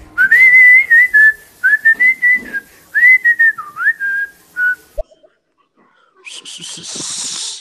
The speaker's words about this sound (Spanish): Yo no sé voy a chiflar, amigos. Yo no sé chiflar. Así que denme un consejo para chiflar.